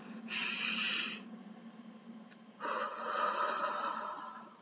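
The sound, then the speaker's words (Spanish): A deep breath drawn in with a short airy rush, then after a brief pause a longer, fuller exhale. Fairly loud, with no talking. “para inhalar y exhalar, ese tiempo, eh, esa, ese mecanismo que se produce en todo nuestro cuerpo, Dios, es que, es que es lo máximo.”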